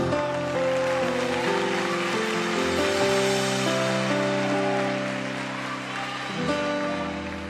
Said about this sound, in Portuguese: Aplauda ele, pode aplaudir.